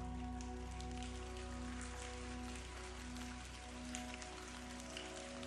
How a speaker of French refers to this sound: Il ferme les yeux, imaginant alors une pluie bienveillante, presque magique, tombant sur le glacier avec douceur.